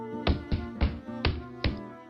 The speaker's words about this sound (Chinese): 狐狸两天把蜂蜜吃下去了半桶，等到了第三天的晚上，狐狸又用尾巴敲响了地板。